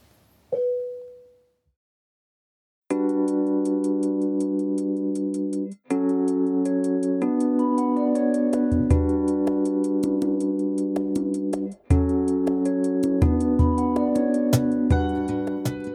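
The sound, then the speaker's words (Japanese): A pop song played on the radio show Hickory Sound Excursion begins after a short tone and a pause of silence, opening with sustained chords over a steady ticking beat, then a bass line joins. It plays loudly, with no voices. “それではこの曲を聴いてください。”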